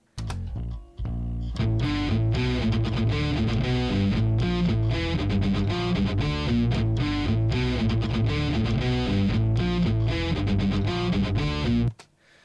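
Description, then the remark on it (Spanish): A heavy, distorted electric guitar riff plays together with a bass line, the low end thick and boomy, with a brief stop near the start before the full band-like sound continues steadily to the end. “toda la definición de la guitarra se va a ir a la chingada y va a empezar a sonar hasta como boomy con el bajo”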